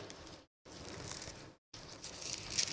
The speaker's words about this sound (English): Thank you for bearing with my Bible Olympics. You guys are doing great. I love hearing pages turn. I can't always tell when the fingers are hitting phones, but I like hearing the pages turn.